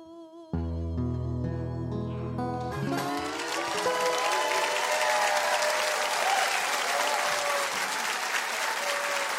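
A held musical chord fades out as an audience breaks into sustained, loud applause: dense, steady clapping that continues to the end, with a few faint whistles or cheers mixed in.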